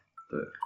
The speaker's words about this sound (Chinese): 你已经开始打嗝了吗？